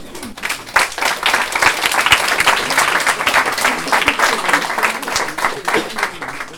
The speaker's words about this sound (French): Allez, je veux bien qu'on les applaudisse.